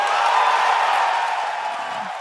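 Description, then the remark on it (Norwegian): A dense, steady roar of an audience cheering in a hall as Xbox chief Phil Spencer announces Xbox One backward compatibility, loud and sustained for the whole moment, with no single voice standing out and fading only slightly at the end. “Det var da Xbox-sjefen Phil Spencer annonserte at Xbox One blir bakoverkompatibel, for da ble det skikkelig skikkelig jubel i salen.”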